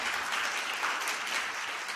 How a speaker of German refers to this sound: einen Applaus für ihn.